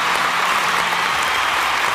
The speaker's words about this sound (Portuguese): Tá, tá, um aplauso para o Timotinho.